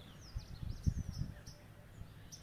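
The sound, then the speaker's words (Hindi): Faint birds chirp and tweet in short scattered calls behind a person guiding a meditation, across a quiet outdoor background with wind blowing and some low muffled rumbling underneath. “मेरी आवाज़ आप तक कैसे आ रही है मेरे पीछे पंछियों की आवाज़ भी आ रही है”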